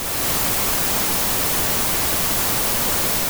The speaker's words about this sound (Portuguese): vocês veem que do nada a televisão liga. Liga na estática. Um chiado forte surpreendendo vocês.